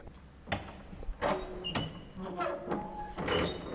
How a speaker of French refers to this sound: Voilà, alors on va faire euh, chanter la porte d'entrée, magnifique, euh, tout en bois avec des belles serrures.